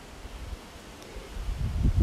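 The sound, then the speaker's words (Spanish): Hurricane-like wind gusts rush and buffet under a closed, dark sky, with low rumbling that swells louder toward the end, like strong wind hitting the microphone, mixed with a faint rustling. “y una música a lo lejos que se entreteje con este vaivén de un viento huracanado pareciera, con un cielo cerrado, oscuro, que invita”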